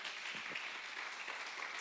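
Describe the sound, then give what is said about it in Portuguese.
A standing audience applauds to the Lord, many hands clapping in a dense, steady wash that holds at an even level throughout, with no voices standing out. “Dá um aplauso ao Senhor, então, fique de pé.”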